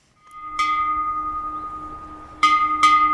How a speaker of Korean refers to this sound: 친숙한 소리. 학교 종소리입니다.